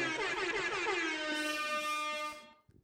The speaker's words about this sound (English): Oh, i let, me hit the air horn.